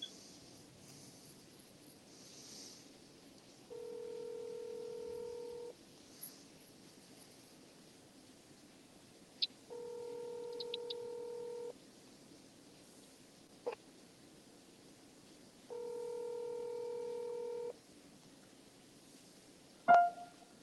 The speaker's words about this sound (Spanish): No, no contesto, ¿ok? No contesto. el teléfono sigue sonando, algo ocurre.